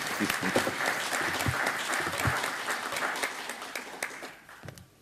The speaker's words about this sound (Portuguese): com um aplauso.